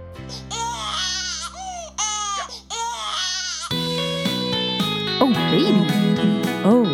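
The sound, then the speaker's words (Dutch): A baby cries in loud, wailing bursts with rising and falling pitch, then music with sustained tones joins and the fussy infant cries continue over it. “Maak je borst maar nat voor huilen”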